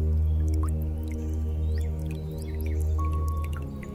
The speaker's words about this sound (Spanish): Concentra tu atención en tu abdomen siente estas tibias gotas de lluvia que relajan todos tus músculos